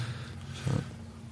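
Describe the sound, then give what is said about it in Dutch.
A small, short burp, a low guttural rumble lasting a fraction of a second, rising briefly out of a quiet, steady background hum. “Ja, Even een klein boertje.”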